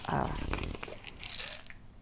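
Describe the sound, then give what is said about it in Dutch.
Crinkly plastic rustling and small crunching clicks as a packet of vitamin pills is handled, a burst of crackle at the start then lighter crinkles, fairly quiet. “Oké, ik pak vitaminepillen en ik ga”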